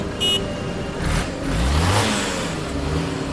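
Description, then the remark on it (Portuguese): A quick, thin motorcycle horn beep sounds, then the motorcycle's engine revs and rumbles as it pulls in, its pitch rising and falling over steady background noise. “Até que você escuta o barulho, uma buzininha de uma moto.”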